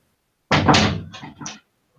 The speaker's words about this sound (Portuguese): Famosa fechada de porta na cara.